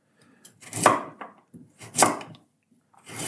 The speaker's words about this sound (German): Ich will das hier jetzt nicht zu äh, filigran werden lassen, weil ich habe auch keinen Bock, heute den ganzen Tag in der Küche zu stehen und alles klein zu schnippeln. Das sieht aber schon sehr gut aus.